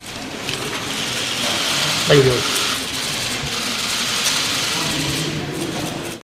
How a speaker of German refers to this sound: da war nur Fotoapparate mhm, klicken genau. zu hören und sonst nichts oder na ganz kurz was.